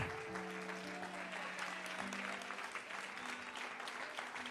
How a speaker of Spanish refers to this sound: Vamos a darle un aplauso fuerte al, al Dios Todopoderoso.